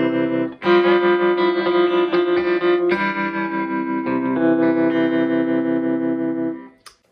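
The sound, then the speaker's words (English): An electric guitar rings out a sustained F add nine chord with a tremolo effect, loud, shifting voicing a couple of times before fading out after about six seconds. “And that sounds real nice if you add a little tremolo to it.”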